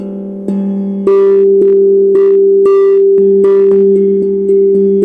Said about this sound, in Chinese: 就像空灵鼓，我如果只有打五这个音，好，我我这样示范一下，大家听一下，这是低阶五的声音。